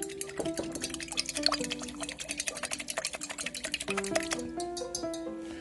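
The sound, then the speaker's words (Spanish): A spoon stirs 12 grams of yeast into warm milk in a cup, making quick, repeated light scraping clicks, with soft background music playing throughout. “Ya que la sacamos del, de lo que es el microondas, vertimos los 12 gramos de levadura en la leche y empezamos a revolver.”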